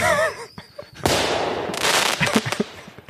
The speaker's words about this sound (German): Ich muss jetzt gleich mal hier einen Böller loslassen, weil wir sind schon.